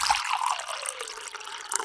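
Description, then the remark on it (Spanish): Water is poured steadily into a glass, a continuous splashing trickle lasting under two seconds, with no one talking. “¿Tomamos un poquito más de agua?”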